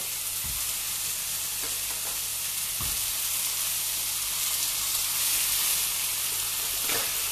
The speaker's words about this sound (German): Ich habe auch schon mal ein bisschen Öl in die Pfanne gemacht. Das Öl ähm, geht auch schon ganz heiß ab, deswegen lege ich da mal die Würste rein. Hört sich schon mal lecker an vom Bratgeräusch.